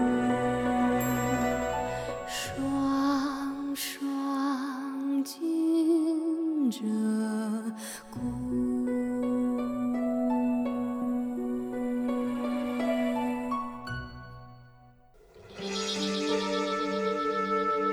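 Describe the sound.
A pop song from a 1987 album, used as a film's end theme, with a woman singing in a low, sustained voice over layered instrumental backing; the music dips briefly near the end before swelling back fuller.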